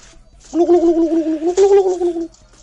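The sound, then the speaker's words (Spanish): A person vocally imitates a turkey gobble live, a loud warbling, wavering call lasting about two seconds, with no other talking. “En directo, porque es suyo, el tono lo hizo él. ¿eh? Él es el developer del tono, de los pavos.”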